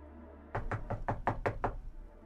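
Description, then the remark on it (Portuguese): A rapid, steady run of about seven firm knocks on the front door, loud, over a low background hum with no voices. “A porta de entrada.”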